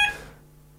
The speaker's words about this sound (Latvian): Man liekas, ka mums ir jā, tā, tā, tā bija trauksmes signāls, vai ne, kolēģi?